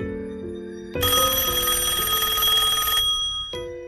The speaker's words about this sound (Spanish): En medio de los escombros, encontré un viejo teléfono de disco, no estaba conectado a nada. A toda prisa, saqué mi celular y llamé a su número. El teléfono sonó en el piso.